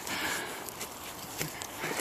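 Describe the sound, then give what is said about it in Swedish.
Running footsteps of a person and a dog on a forest trail during a training run, a few irregular soft thuds over a steady rushing, breathy background, moderately quiet, with no talking. “Nå, vi springer vidare och ser, det finns säkert flera här nära.”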